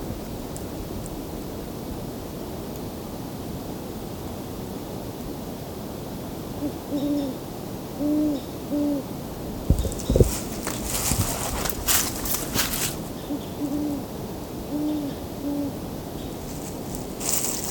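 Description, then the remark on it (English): A great horned owl hoots in repeated low, soft series of notes over steady outdoor background noise, with footsteps crunching and rustling in the middle. “Great horned owl.”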